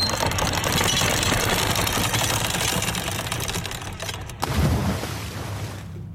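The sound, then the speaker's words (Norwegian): A boat's anchor chain rattles out fast in a dense, continuous metallic clatter for several seconds, ending in a heavy thud and a fading low rumble. No one speaks. “Bare droppe ankeret.”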